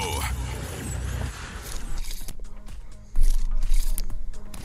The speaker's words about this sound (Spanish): Yo digo que es un cúter. Así que... No, belleza, no, hermoso, no, bebé de luz, no, es el cúter.